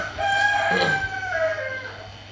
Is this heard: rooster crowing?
yes